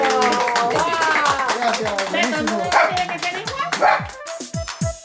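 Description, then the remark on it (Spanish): A small dog yaps excitedly a few times amid rhythmic hand clapping and lively voices, the barks bright against the busy, cheerful background, during a song with a band. “Bueno, ya escucharon la alegría, hasta el perrito estaba contento.”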